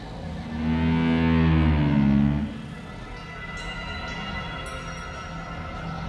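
A cow lets out one long, loud, low moo, then fainter lowing from other cattle carries on in the background, like a herd mooing together.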